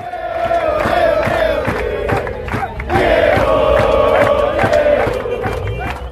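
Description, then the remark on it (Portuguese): A large crowd of fans at Diego's wake at the Casa Rosada, Argentina's seat of government, some hanging on the barrier railings, chants and shouts Diego's name in unison, a loud, sustained roar with a rising and falling rhythm, like football fans at a stadium. “tinha até torcedores pendurados nas grades de contenção, né, como se fosse um estádio de futebol de verdade, gritando o nome de Diego.”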